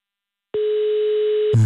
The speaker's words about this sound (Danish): Nummeret, du ringer til, er optaget.